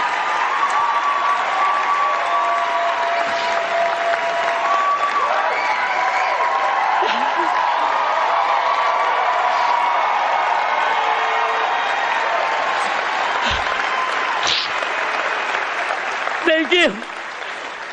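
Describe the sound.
A large audience gives a standing ovation at the Oscars, applauding loudly and continuously for the whole stretch, with scattered cheers, whoops and crowd voices mixed into the dense clapping; a brief louder burst of noise rises near the end.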